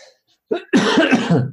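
human body sound, cough

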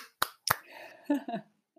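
human body sound, hand clapping

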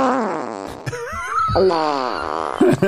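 sound effect, fart sound effect

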